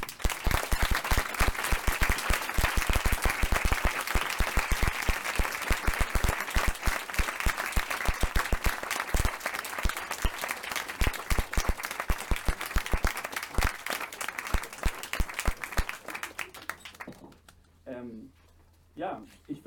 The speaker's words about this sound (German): Ähm, ich würde jetzt so ganz smooth gerne überleiten zu dem QA, aber wir müssen einfach einen riesigen Applaus hier erstmal loslassen.